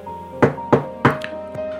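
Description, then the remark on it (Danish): Three firm knocks on a wooden table, evenly spaced, followed by a couple of softer taps, with a faint steady hum in the background. “bank i, i bordet så har jeg heldigvis ikke, øh, heldigvis ikke haft noget.”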